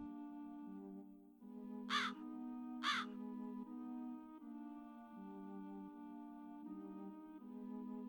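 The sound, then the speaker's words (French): Two harsh crow caws ring out about a second apart over a steady, low, sustained musical drone that continues throughout. “Les corbeaux se demandent ce que quelqu'un comme toi vient faire ici.”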